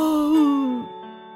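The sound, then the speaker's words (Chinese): A single drawn-out yawn voiced by a person as Robbie, a sleepy little lion cub, a moaning tone that swells, then slides lower and trails off into a soft breathy exhale, all within about a second. “他打了个哈欠，无精打采的四处转着，想找一个安静的角落睡上一觉。”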